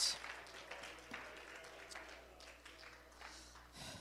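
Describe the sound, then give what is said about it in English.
A crowd clapping their hands to the Lord and to Jesus in a sustained, dense patter of applause that continues for several seconds, with no voices rising above it. “And can we clap our hands to the Lord right now once again? Clap your hands to Jesus.”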